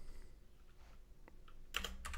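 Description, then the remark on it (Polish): Keys clatter on a computer keyboard in a short, uneven burst of clicks, faint at first and then louder toward the end, with no voices. “Dobra, pisze.”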